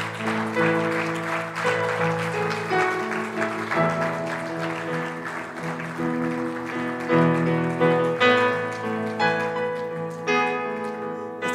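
A church audience claps steadily and continuously for several seconds, giving applause to God during a prayer, the dense patter of applause layered over sustained music with held tones, with no talking heard.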